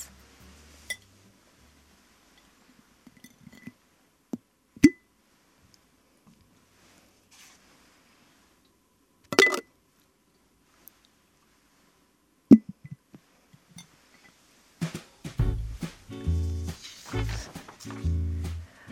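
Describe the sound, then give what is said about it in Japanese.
Something is placed into a glass jar: a few sharp, isolated clinks spaced seconds apart in near silence, then a burst of rattling and rustling handling noise toward the end. “ではこちらもガラス瓶に入れたいと思います”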